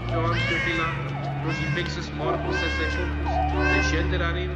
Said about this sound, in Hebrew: רגע מקסים, אבל כל הזמן שומעים את התינוקי הזה בוכה.